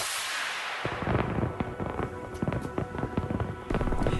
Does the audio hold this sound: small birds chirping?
no